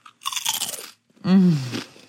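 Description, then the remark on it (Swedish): A loud, dry crunch of someone biting into truffle potato chips, a crackly burst lasting under a second, followed by a low hummed murmur through a full mouth as chewing continues. “Förlåt, jag måste ta ett chips.”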